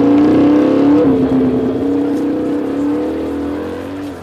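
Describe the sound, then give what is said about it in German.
A motorcycle engine drones loudly, its pitch rising and shifting as it passes through a crowded old medina, with a dense wash of street noise underneath and no clear talking. “Aufpassen, da kommt ein Motorrad.”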